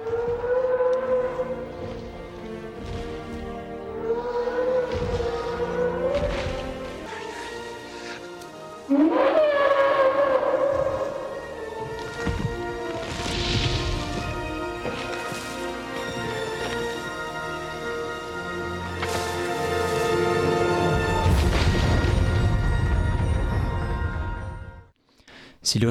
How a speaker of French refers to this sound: Euh, les cris des brachiosaures entendus dans Jurassic Park sont en fait une combinaison des cris d'âne et de baleine. Écoutez.